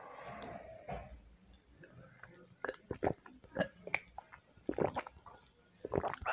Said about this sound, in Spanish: Ah, permítanme, una vez lo voy a dar otro trago a mi café.